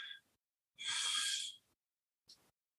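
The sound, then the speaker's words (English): A slow, deep breath: one long airy whoosh with softer breath sounds before and after, separated by quiet pauses. No one speaks. “Every time I breathe, I'm breathing in Holy Spirit.”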